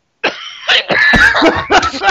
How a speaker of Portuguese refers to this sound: eu vou cair nessa porra, eu vou tossir à vontade. Vou tossir pra caralho, depois eu entro de novo e falo, caí.